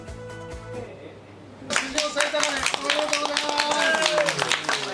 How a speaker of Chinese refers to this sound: 证券业者拉开彩球，鼓掌欢呼。